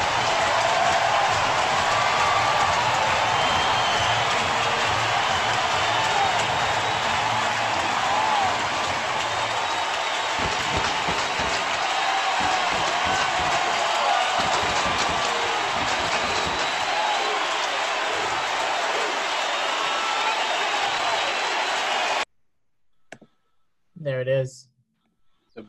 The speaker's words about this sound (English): number 700 for Barry Bonds. Aaron, Ruth, and now Bonds, the 700 home run club, as Bonds steps on home plate, and listen to this crowd.